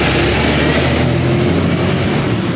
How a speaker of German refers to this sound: Das war ein LKW.